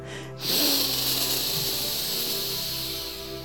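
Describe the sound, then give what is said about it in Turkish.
A single long, loud breath, drawn in through the nose and let out through the mouth with a constricted throat, producing a steady hissing, ocean-like rush that starts abruptly and slowly fades, with no talking. “Okyanusun sesi senden çıksın. Ne kadar ses çıkartabilirsen o kadar. Sesli bir nefes al.”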